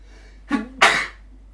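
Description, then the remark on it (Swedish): A single sneeze: a short breathy intake rising in pitch, then a sharp, loud, noisy burst that trails off quickly into quiet. “Nu kommer jag nysa.”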